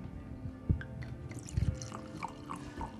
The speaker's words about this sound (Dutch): Eh, ga je het ook nog inschenken? Eh, ja, dat denk ik wel.